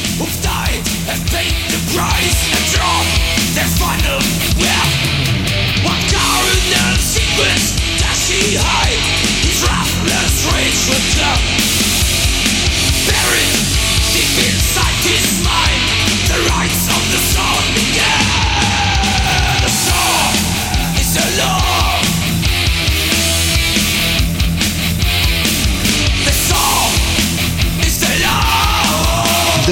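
A loud, dense heavy metal track with distorted guitars, pounding drums and harsh shouted vocals, playing continuously at full intensity throughout.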